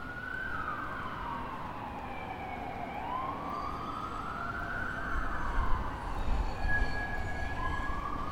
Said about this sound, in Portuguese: Tudo o que se ouve são carros e autocarros, quase nunca pessoas, e há um novo som que se confunde na paisagem sonora: ambulâncias, sinal dos tempos que correm.